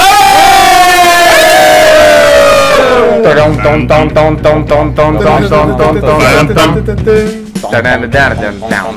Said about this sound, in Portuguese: Está começando Vamos! mais uma edição histórica e eu quero ouvir o grito da galera. Uma edição histórica do Toque Me Boy!